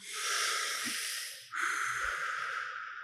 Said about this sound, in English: Five more here. three, two, the last one, slowly exhaling